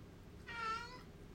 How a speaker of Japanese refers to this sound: 猫が返事した。